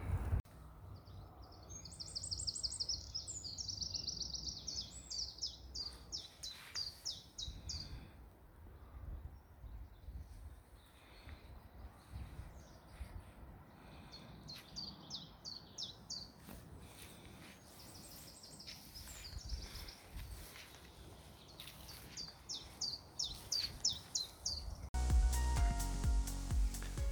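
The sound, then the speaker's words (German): Birds sing in a forest, repeating bright, high, trilling phrases in bursts over a steady low rumble with scattered soft thuds and rustles. No one speaks. “Es ist ruhig, man hört alles. Nur, nur kein Autolärm. Ansonsten also Vögel”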